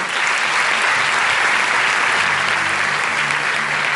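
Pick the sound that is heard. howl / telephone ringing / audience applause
audience applause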